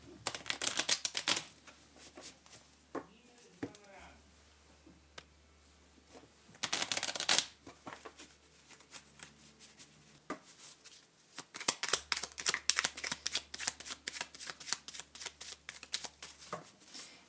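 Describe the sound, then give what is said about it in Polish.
Crisp shuffling of a deck of tarot cards in several bursts of rapid riffling and flicking, with short pauses between, the sharpest flurries near the start, middle and end. “Zacznę od potasowania kart wskazówek i potem przyjrzymy się, co słychać w tarocie.”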